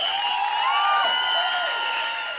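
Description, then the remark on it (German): A crowd cheers and shouts in a dense, sustained roar, with high whoops and voices rising above the steady wash of noise for a couple of seconds. “Ein Grund zum Feiern und zum Jubeln.”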